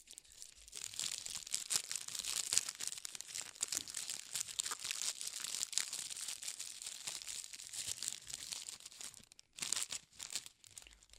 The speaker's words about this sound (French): Prenez les extrémités du papier et entourez-les. Faites les découpages si nécessaire si ça dépasse trop.